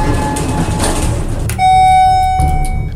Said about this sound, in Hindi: lift basement पहुंची दरवाजा खुला लिफ्ट से थोड़ी ही दूर पर एक मरीज लंगड़ाता हुआ लिफ्ट की तरफ बढ़ रहा था डॉक्टर ने उसे देखकर झट से लिफ्ट का दरवाजा बंद कर दिया